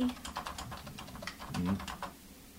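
Rapid, irregular clicking of keys on a computer keyboard as someone types a prompt asking for an essay on poodles into a smart computer website, steady for a couple of seconds, with a faint low hum underneath and no one speaking.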